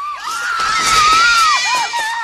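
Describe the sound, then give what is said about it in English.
A woman screams loudly and continuously, her shrill, wavering cry rising and falling in pitch without a break for a couple of seconds; Kate Capshaw's character in the Indiana Jones film Temple of Doom. “Jones is my most quoted line from the series, but from my least favorite movie, Kate Capshaw's character just never stops screaming.”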